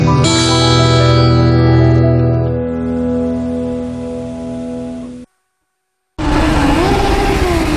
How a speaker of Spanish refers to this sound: Ya rugen los motores vuelve el Gran Premio de Cataluña al circuito de Montmeló.